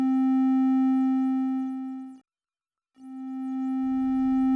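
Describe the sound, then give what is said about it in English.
A steady, buzzy synthesizer oscillator tone with its volume shifting as the coarse gain is changed: it swells slightly, drops away to brief silence, then returns and gradually builds again. No one speaks. “We can change coarse gain.”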